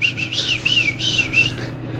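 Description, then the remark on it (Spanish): Small birds chirp in a quick, continuous run of high, sweeping notes over a low background hum, steady, with no one talking. “Es un re buen momento el tema de los pajaritos.”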